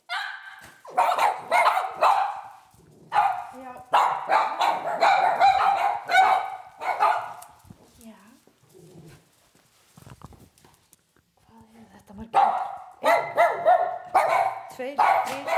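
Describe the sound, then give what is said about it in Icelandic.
Several Cavalier King Charles spaniels bark in rapid, overlapping bursts, loud, with a quieter lull in the middle before the yapping picks up again, at a detached house in Grafarvogur, Iceland, home of the chair of Iceland's Cavalier club. “Þetta er Anna Backmann og þarna heyrðu við í kavalér hundónumennar.”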